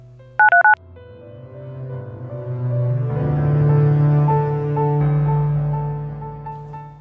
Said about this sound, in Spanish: Mai tomó el teléfono y marcó el número de la diosa Isis, el 042.